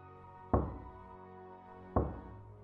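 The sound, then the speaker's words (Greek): Two single knocks on a bedroom door at night, spaced well over a second apart, each a sharp thud with a short ringing decay, distinct over a quiet background with no talking. “Όλα ήταν αρκετά βαρετά μέχρι που άκουσα ένα χτύπημα στο δωμάτιό μου.”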